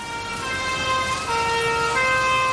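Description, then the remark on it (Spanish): A fire engine siren wails steadily as firefighters arrive, its sustained tones shifting pitch partway through, over a constant rumble of traffic noise. No one speaks. “Llegan los bomberos.”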